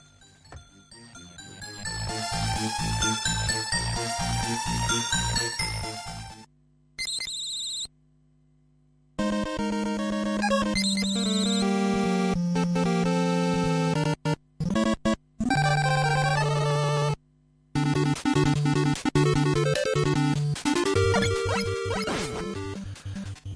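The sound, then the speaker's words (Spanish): Loud 8-bit music from the video game Mega Man (Rockman in Japan), made by Capcom for the NES in 1987, with buzzy square-wave melodies and a pulsing bass line, cutting out abruptly several times before starting up again. No one speaks. “Bueno, pues estamos escuchando nada más y nada menos que a Mega Man.”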